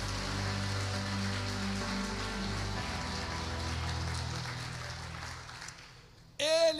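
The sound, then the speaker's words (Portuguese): An audience applauds Jesus in a dense, sustained wash of clapping over a low held musical tone, gradually thinning out before a voice briefly cuts in at the end. “Aplauda Jesus por isso.”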